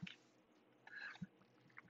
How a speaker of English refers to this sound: I'm sipping my coffee here. Sorry about that, guys. Ice caramel macchiato.